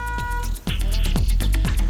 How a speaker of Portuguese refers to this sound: Mesmo com todos os avisos, tem gente que se confunde, parando o veículo. Quem vem atrás, buzina.